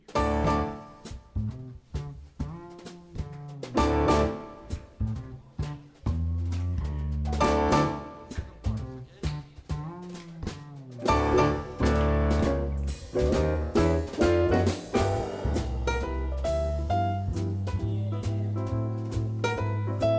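A jazz standard plays steadily and fairly loud, with walking bass, crisp drum hits and piano chords, and the band swells into a fuller section partway through. No one talks over it.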